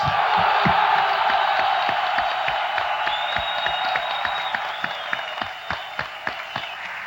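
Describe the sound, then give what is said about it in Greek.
Sustained applause from a large crowd in the Senate hall of Parliament after the announcement of the PASOK leadership vote result electing Kostas Simitis, a dense wash of clapping with sharper individual claps standing out and a few faint cheers, easing slightly toward the end. “Η αναγγελία του αποτελέσματο σε μια αίθουσα τη γερουσία του Κοινοβουλίου από τον κύριο Μπέι προκαλεί χειροκροτήματα.”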